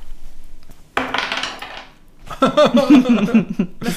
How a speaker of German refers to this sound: müssen wir vorher würfeln, oder beziehungsweise die beiden müssen vorher würfeln, damit wir dann wissen, welches Land es ist, damit wir dann unsere länderspezifischen Fancy Drinks holen können. Also, würfelt.